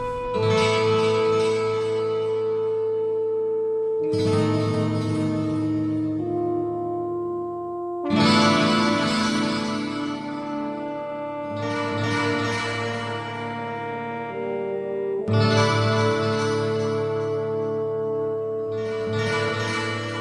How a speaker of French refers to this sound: Je te propose qu'on lance un petit jingle et on en parle tout de suite.